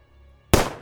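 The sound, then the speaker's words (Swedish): A single sharp pistol shot cracks out after a brief quiet moment, loud, its burst of noise trailing off quickly with no voices present. “Jag höjer min pistolas pistolas och ser om jag kan skjuta vad det nu är för något.”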